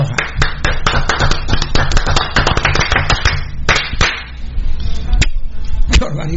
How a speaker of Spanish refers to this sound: Un aplauso no, un juego de aplausos para DataCraft Guatemala.